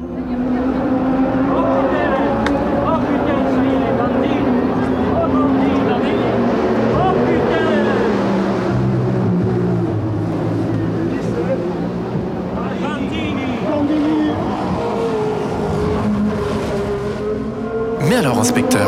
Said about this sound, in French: pourquoi Barney Whelan a-t-il enregistré ses sons du Grand Prix de Monaco Eh bien au départ, il était question d'un film et d'une performance mêlant son, images et musique.